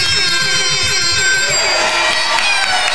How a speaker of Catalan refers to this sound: Doncs, sisplau, saludem amb un fort aplaudiment al públic que tenim aquí de Sant Celoni,